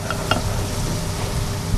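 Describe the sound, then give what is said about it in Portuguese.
A large pot of sugar and water bubbles and hisses at a steady boil while traditional fennel sweets (repousados de funcho) are being made, with a couple of brief clinks near the start and no talking. “põe ao lume uma grande panela com água e açúcar e assim prepara os típicos repousados de funcho da forma que aprendeu com o pai.”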